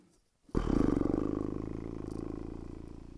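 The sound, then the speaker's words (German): A long, drawn-out vocal yawn, a low groaning sound with a slight pulsing rasp, that starts suddenly after a moment of quiet and slowly fades over about three seconds. “Ja, ich muss, ich muss gähnen, weil mich das so sehr langweilt.”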